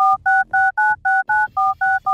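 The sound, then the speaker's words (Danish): A quick run of about nine touch-tone keypad beeps as a very long phone number is dialed, each a short two-pitched tone separated by brief gaps, in a steady, even rhythm. Loud, with no voices. “Det er en meget lang telefonnummer. Det er til USA eller sådan noget.”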